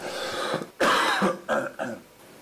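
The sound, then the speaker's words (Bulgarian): Someone coughs: one loud, harsh cough followed by two shorter, softer coughs in quick succession, with no talking. “После ще трябва да правя едитинг за моите кашлици.”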